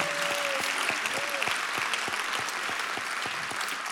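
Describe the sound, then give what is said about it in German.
A crowd applauds the managing director of the ICF after his presentation of figures, clapping steadily throughout, a dense wash of applause with a few louder individual claps standing out, while a voice briefly speaks over it at the start. “Lass uns doch unserem Geschäftsführer vom ICF Applaus geben.”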